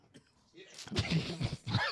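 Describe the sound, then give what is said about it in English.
A man coughs in a rough fit, several harsh bursts in quick succession mixed with throaty clearing sounds, after a brief quiet start. “I'm Somebody get this man a Who water.”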